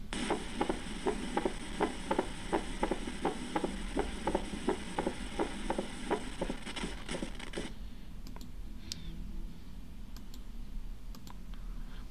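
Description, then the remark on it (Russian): A steady train of sharp heart clicks beats in a regular rhythm for about eight seconds, the opening snap of the mitral valve, then fades into faint background hiss with a few scattered ticks. “Еще раз щелчок открытия митрального клапана.”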